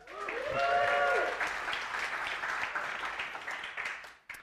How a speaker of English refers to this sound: Big round of applause.